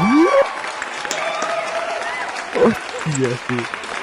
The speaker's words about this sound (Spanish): Un aplauso porque era la más difícil.